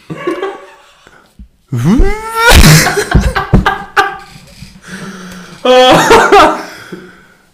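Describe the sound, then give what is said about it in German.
A person imitates a vacuum cleaner in C major with loud, strained vocal noises: rising whines, buzzy hums and breathy bursts, in several separate spurts. “für Sie am Staubsauger in C-Dur”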